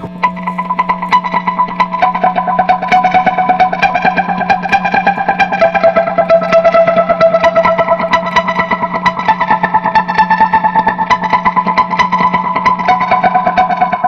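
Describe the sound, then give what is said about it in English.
A dense, buzzing electronic texture with warbling, repeating delay-effect echoes layered over a steady low drone, loud and continuous throughout with no voices. “it's like kind of like very to like you know delay sort of stuff, you know, like and I did figure out these like weird sounds and stuff.”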